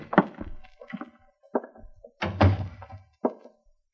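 A series of dull, heavy door thuds and knocks as the door of a motel room, room seven, is opened with a key, with the loudest, deepest impact about halfway through. No one speaks.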